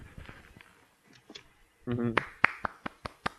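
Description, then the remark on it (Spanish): A short burst of applause for writers: a handful of sharp, evenly spaced, crisp claps, following a brief voice, with murmured speech faintly beneath earlier on. “Ahí podemos escuchar un aplauso.”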